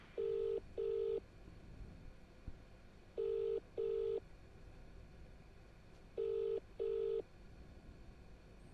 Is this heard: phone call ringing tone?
yes